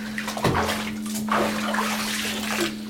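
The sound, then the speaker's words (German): Water sloshes and splashes in a bathtub as a woman stands up after ducking under one last time, with a burst near the start followed by continued dripping and swishing, fairly loud, with no talking. “Dann steht sie auf.”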